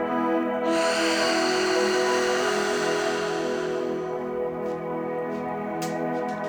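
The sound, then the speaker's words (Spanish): A long, breathy airflow swells in near the start and fades over a few seconds: a deep breath drawn in through the nose and released as a long, audible exhale through the mouth during a breathing exercise, set over a steady, sustained musical drone. “Vas a inhalar profundo por nariz, una inhalación larga y vas a sostener esta inhalación por un par de segundos.”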